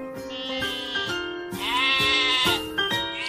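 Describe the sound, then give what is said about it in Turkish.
Several overlapping sheep bleats, loud, wavering calls repeating one after another with brief gaps, no talking, as the sheep are about to be taken outside. “Kısa bir ara veriyoruz. Koyunları dışarı çıkaracağız.”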